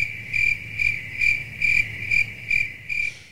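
Crickets chirp steadily in a rhythmic pulse, about seven bright bursts over a few seconds, clear against a quiet low hum, with no voices.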